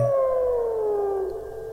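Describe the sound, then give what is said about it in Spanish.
A single loud, drawn-out werewolf howl from the character El Vengador, holding one strong tone that slowly slides downward in pitch and fades slightly near the end, with no talking. “El Vengador lanza un potente aullido y luego cae pesadamente.”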